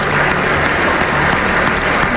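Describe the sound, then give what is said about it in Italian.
Sustained audience applause, a dense, steady wash of many hands clapping at once, loud and even throughout with no voices standing out. “E poi tacere, per lasciare spazio al tributo più grande e più ambito, la ricompensa dopo l'inchino, il nostro applauso.”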